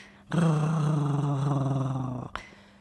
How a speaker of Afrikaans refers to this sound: Sis die skaapond tussen sy tande deur.